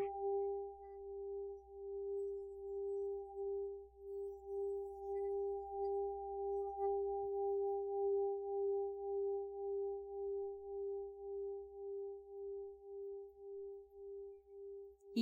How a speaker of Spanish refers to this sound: estamos escuchando justo los cuencos con los que Alma trabaja